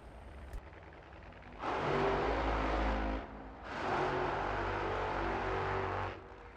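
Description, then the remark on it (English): A loud drag racing car engine rumbles down the track past half track, in two long, sustained roaring bursts separated by a brief dip, with a broad, reverberant echo and a deep low-end throb. “So you still hear the the rumble. I'm I'm down track at this point. I'm I'm past half track, uh, but you can hear just how big the sound is and how the echo.”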